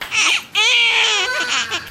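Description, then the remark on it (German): Busy maternity ward of a hospital in the city of Matubani, Bihar, India, dominated by a newborn crying: a short wail, a brief catch of breath, then a longer, wavering cry that rises and falls over a faint background. “Es ist viel los auf der Geburtsstation dieses Krankenhauses in der Stadt Matubani.”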